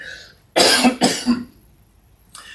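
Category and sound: human body sound, cough into the microphone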